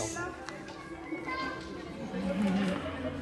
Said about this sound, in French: Est-ce que t'entends le vent il y a trop de bruit, les enfants, ils trop de bruit.